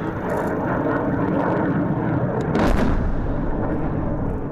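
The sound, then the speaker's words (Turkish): A continuous heavy rumble of artillery bombardment, counter-fire by the Azerbaijani army against Armenian military activity in the region, with one louder blast bursting out just past the midpoint, then the low roar carrying on without any voices. “Ermenistan'ın bölgedeki askeri faaliyetlerini durdurmak ve halkın güvenliğini korumak için karşı bombardıman açtı.”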